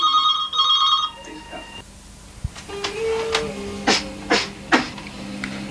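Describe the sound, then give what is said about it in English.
A telephone rings with a trilling, warbling tone in two quick bursts at the start, then stops and gives way to scattered clicks, clatter and a faint, indistinct voice. “Oh, to it's the phone. I've got to go now.”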